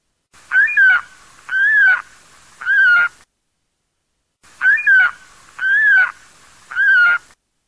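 A saker falcon gives loud, harsh screeching calls in two bursts of three, each cry drawn out and grating, with a brief pause between the groups and no other sounds.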